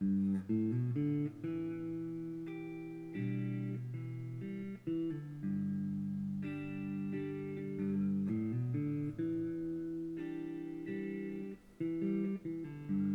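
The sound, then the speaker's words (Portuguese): An electric guitar strung with thin strings plays a slow melodic phrase with sustained, ringing notes, some bending smoothly up in pitch. It sounds fairly loud and steady, with no voices. “Um, ehm, pá, isto é viciante, porque está com um som mesmo fora do normal.”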